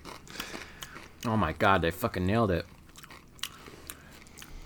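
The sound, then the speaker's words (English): Crisp crunching of someone chewing a hot mustard flavored chip, sharp crackly bites before and after a loud excited spoken exclamation in the middle. “What a crunch!”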